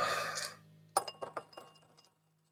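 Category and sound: household object, dice being rolled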